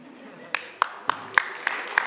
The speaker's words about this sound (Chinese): 对大家不要鼓掌鼓得太开心